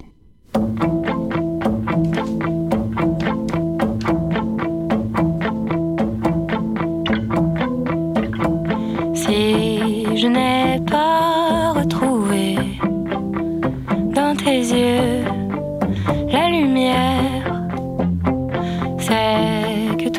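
A pop song plays at full volume: a steady pulsing beat and sustained chords open the track, then a sung vocal line comes in about halfway through and carries on over the music.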